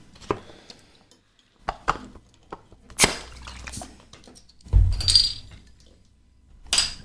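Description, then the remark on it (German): A bottle of Nordic Porter beer being opened: several sharp glassy clinks and clicks, then a brief fizzing hiss as the cap comes off, and a final clink. No talking. “Und äh, deswegen mache ich das jetzt auf.”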